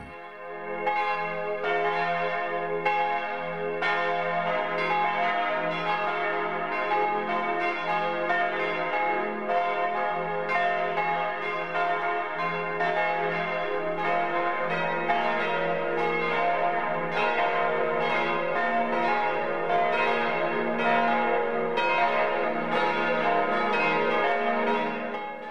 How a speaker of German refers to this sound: Es ist 12 Uhr. Das Mittagsläuten kommt heute aus Bad Wiessee in Oberbayern. Michael Mannhardt hat die Kirche zum heiligen Antonius und die Friedenskirche besucht und die Glocken aufgenommen.